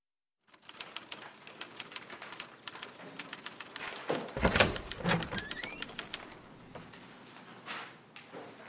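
A typewriter in an office clacks away in quick, irregular keystrokes, with a heavier clunk of the carriage mechanism midway, then the typing slows and stops, leaving quiet room tone.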